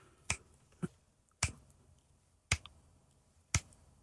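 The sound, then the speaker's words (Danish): Five crisp, sharp finger snaps by a woman wearing an LED bracelet on her left wrist that changes colour when she snaps, landing at a fairly steady pace, each a short bright crack standing out clearly against a quiet background with no talking. “fordi hun knipser utrolig rytmisk og kontant.”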